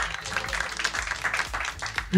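An audience applauds steadily, a dense wash of clapping that holds at a fairly loud level throughout, with a regular low thump pulsing underneath about twice per second, applauding contestants' correct answer on a quiz.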